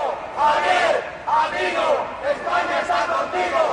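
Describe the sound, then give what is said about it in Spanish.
About thirty supporters awaiting Vox leader Ortega Smith shout and chant together at a doorway, a loud, continuous wall of overlapping voices that swells in repeated bursts roughly every second. “A la puerta, al líder de Vox le esperaba una treintena de simpatizantes.”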